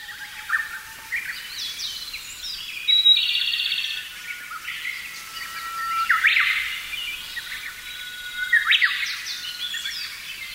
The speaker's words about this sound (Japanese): ウグイスのさえずりがとても賑やかです。連続して鳴き、谷渡りを盛んにしてコーラス全体を盛り上げています。ウグイスの他は、コマドリ、エゾムシクイ、キビタキ、ホトケギスの鳴き声が聞こえます。この日は7種類の鳥の声を確認することができました。